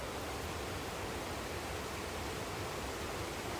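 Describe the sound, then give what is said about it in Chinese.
A mountain stream rushes steadily over rocks, its broad, hissing wash of water holding an even level throughout with no voices or pauses. “我看到那个溪水，好棒哦！你们听声音来。”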